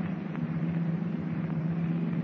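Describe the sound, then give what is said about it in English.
A steady, unbroken hiss of air from the pressure equalizer inside a diving submarine, about 150 to 200 feet down, holding an even level throughout, layered over a low mechanical hum, with no voices. “What's that hiss of air? Pressure equalizer.”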